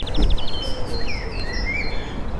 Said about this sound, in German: Aber es ist ja einiges los, so was zumindest die Gesänge angeht und das frühlingshafte Vogeltreiben. Direkt vor meiner Nase ich gehe mal raus.